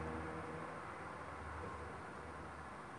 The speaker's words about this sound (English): fucking traffic is so loud. I have I have to be louder, but I don't give a fuck, you know.